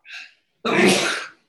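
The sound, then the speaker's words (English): A single loud sneeze: a quick breathy intake followed by a sharp, explosive burst that trails off within about a second. “bless you.”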